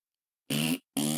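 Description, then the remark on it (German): Two short, buzzy fart-like bursts of air escaping from a hole in a space suit, fairly loud, separated by a brief pause, with the second cut off abruptly. No one speaks. “Adama hat ein Loch in seinem Anzug und jetzt pupst er die ganze Zeit aus diesem Loch”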